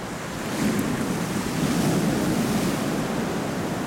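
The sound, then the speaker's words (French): Ocean waves roll in a steady, broad roar of surf, swelling slightly after the first half second and holding loud, with gusty wind noise mixed in and no voices. “Tu vois, la force des vagues, là, regarde, elle roule, tu vois, et elle roule comme ça.”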